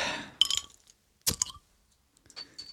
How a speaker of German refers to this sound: Und außerdem musst du erst noch deine Fritz Cola öffnen, bevor, bevor dem läuft hier gar nichts. Ach, du hast recht, pass auf, ich mache mir erst mal eine Cola auf.